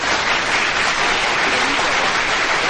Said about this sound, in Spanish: Un aplauso.